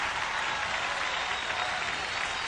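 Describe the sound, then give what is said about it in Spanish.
A crowd in a church applauds steadily, a dense, even wash of clapping that holds at the same loud level without pause from start to finish. “O sea, le aplauden, tienes no, razón.”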